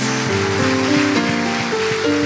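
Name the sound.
audience applause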